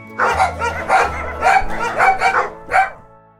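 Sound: dogs barking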